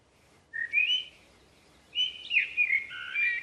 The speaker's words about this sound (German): Mit dem Gesang wollen die Männchen Artgenossen aus dem Revier vertreiben. Der Gesang bedeutet dann so viel wie Geh weg. Gesungen wird nur während der Brutzeit. Bei der Amsel klingt das so.